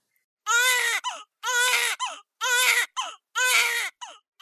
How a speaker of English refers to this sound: All right, the sound of that baby crying means it's time for this week's segment of Birth It Up Babies.